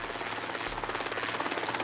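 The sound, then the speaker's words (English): Steady rhythmic thudding of two helicopters' rotors circling above a stadium on a match day fills the air, a continuous chopping drone with a low engine hum, fairly loud and overhead, with no voices. “Hundreds of police with rifles and handguns, and a pair of helicopters circling above.”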